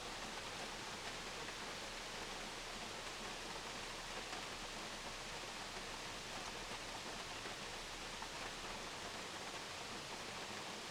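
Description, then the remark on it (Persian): A steady, dense roar of rushing water from a waterfall fills the whole scene without pause, the roar coming from the volume of water falling from height. The wash is even and continuous throughout, with no voices or other distinct sounds. “این خروش از میزان آبی که تو اونها هست از ارتفاعی که دارن به وجود میاد”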